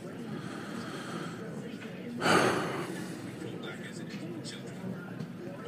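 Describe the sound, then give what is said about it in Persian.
A person takes a quick shot of bourbon and lets out one sharp, breathy gasp, standing out briefly against a steady low background murmur. “بذار یه شات از بربن هم بزنم صداها رو میشنوید این پشت”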